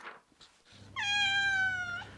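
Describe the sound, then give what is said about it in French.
A cat at a pet cemetery lets out a single drawn-out meow, clear, with a steady low hum of background noise underneath and no talking. “Tiens, un chat.”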